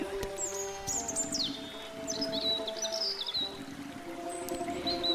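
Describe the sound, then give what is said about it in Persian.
Sparrows and other birds sing, chirping and twittering in quick, repeated bursts throughout, clear, over a steady low droning hum in the background, in a village among farms, orchards, tall trees and streams. No one speaks. “طبیعت این روستا فوقالعاده زیبا و بکر بود پر بود از مزارع و باغها و درختان زیبا و بلند و جویبارهای پر از آب که از وسط مزارع رد می و صدای آواز خوندن گنجشک و پرندگان همیشه شنیده می”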